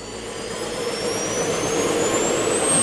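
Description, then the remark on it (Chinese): A passenger airplane's jet engines roar steadily during takeoff after the safety checks, a broad loud rumble with a thin whine that climbs in pitch as the engines spool up, growing slightly louder over the few seconds. No one speaks. “接下来，连安全检查都检查完毕，一切就绪，准备起飞喽！”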